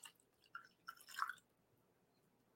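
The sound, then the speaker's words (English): Wine glugs from a bottle as a whole bottle is poured in, in a few short, gurgling bursts over about a second, fairly quiet, then the pouring stops and it falls silent. No one speaks. “I'm just going to pour the whole thing in.”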